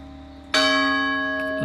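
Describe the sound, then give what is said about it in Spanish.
A church bell in a church bell tower strikes loudly about halfway through, its rich metallic tone ringing on and sustaining, layered over an already humming bell resonance from a previous strike. “Si alguien entiende el significado de estas campanas”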